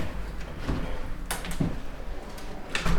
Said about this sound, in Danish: Og lige tage et par vejrtrækninger måske jeg lige lukker døren ja.